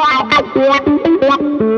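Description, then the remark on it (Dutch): An effected electric guitar plays a short run of sustained, distorted notes, each rising and falling in loudness as a volume pedal shapes the swells, with no talking. “Dus dat is mijn volumepedaal, maar dat, die kan ik dan ook.”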